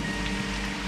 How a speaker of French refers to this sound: Ça va les calmer un peu cette pluie.